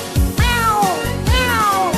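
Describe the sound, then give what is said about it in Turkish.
A cat on a farm meows twice in a row, each call a loud, drawn-out wail that rises and then slides down in pitch, clear with no voices around. “Çiftliğinde kedileri var.”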